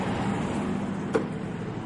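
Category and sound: vehicle, car driving away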